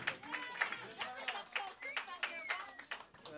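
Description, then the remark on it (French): Audience applause with sharp, steady claps at a quick rhythm for several seconds, moderately loud, while voices call out and chatter over the clapping. “Applaudissez le malaise.”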